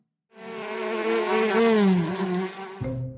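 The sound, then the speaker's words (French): Bees buzz loudly in one continuous drone whose pitch wavers and dips for a few seconds, then cut off abruptly into a brief lower hum. No one speaks. “Eh oui, tu as deviné, nous allons parler des abeilles.”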